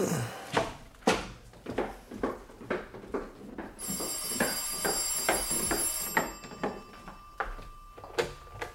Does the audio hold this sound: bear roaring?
no